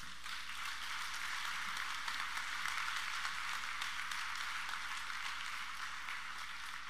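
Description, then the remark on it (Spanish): A crowd claps steadily for several seconds, a dense, even wash of many hands with a bright crackling texture that holds at the same loud level throughout, with no voices. The applause is for people who came from Argentina, Colombia and Mexico. “Dale un fuerte aplauso.”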